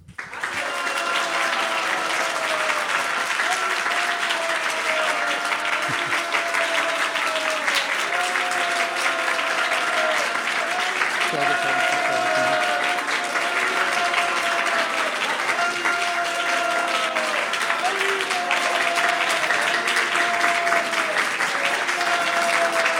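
Steady, dense applause from a sizable audience of devotees, inviting a woman to come up and speak, loud and sustained for over twenty seconds without fading, with faint voices and cheers mixed into the clapping.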